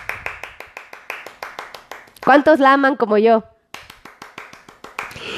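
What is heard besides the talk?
applause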